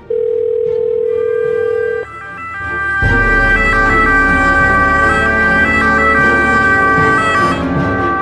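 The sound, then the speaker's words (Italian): A steady phone-like tone hums for two seconds, then a loud ambulance siren takes over, alternating between pitches continuously, with no voices. The ambulance is called out during a snow emergency, via the civil protection operations centre (COC). “Chiamano l'ambulanza.”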